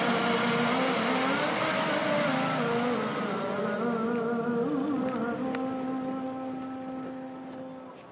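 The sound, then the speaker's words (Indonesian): Dense afternoon street traffic in Kampung Duri, Tambora, West Jakarta, by the Duri station parking area: motorbikes overtaking each other and cars, engines droning and revving as vehicles pass, a steady busy roar that slowly fades toward the end. “Motor saling salib, mobil-mobil gak beranting lakson, penjual somai akrobat ngegoes sepedanya di antara trafik yang padat.”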